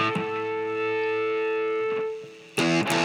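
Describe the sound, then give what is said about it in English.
A loud, distorted electric guitar, cranked up, sustains a chord with steady ringing feedback tones, then breaks into a harsher, noisier strum near the end. “cranking up, you gotta you gotta do it louder. Oh, good feedback too.”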